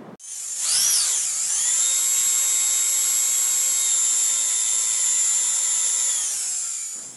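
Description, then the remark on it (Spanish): A dental drill spins up with a rising whine, then holds a steady, piercing high-pitched whir for several seconds before easing off at the end. Loud, with no voices. “Exacto, es un taladro dental cuyas vibraciones y sonido pueden ser irritantes.”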